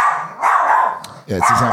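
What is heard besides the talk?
dog barking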